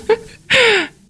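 A woman yawns: a short intake of breath, then a long, drawn-out voiced exhale that slides downward in pitch and fades.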